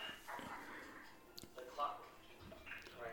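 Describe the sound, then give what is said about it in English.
A small dog, a puppy with a broken leg, gives a few short, high-pitched yips and whimpers over about three seconds, fairly quiet, with people's voices mixed in underneath. “Him's got a little doggy.”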